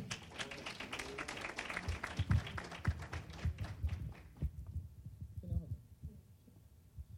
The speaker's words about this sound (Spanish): Ah, un aplauso al Señor. Vamos.